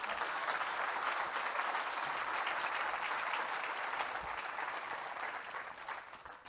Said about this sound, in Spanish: Denle un fuerte aplauso a Cristo, hermano.